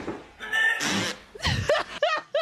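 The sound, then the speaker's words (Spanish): Several loud farting noises in quick succession, some raspy and others squeaky and tonal, with bursts of laughter mixed in toward the end. “Hablando de pedos también, ¿viste?”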